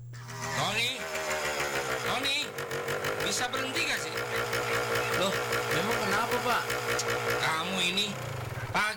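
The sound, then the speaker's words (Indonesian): A motorcycle engine, started in the morning and revved repeatedly, runs with a loud, steady drone, while people talk over it throughout. “pagi sudah menghidupkan motor sambil digas-gas berisik tahu?”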